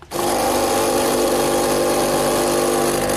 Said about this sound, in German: Ja, es war eine Kaffeemaschine für all diejenigen, die mitraten wollten und nicht so äh, ganz schnell das gehört haben. Hier nochmal die Kaffeemaschine, Achtung.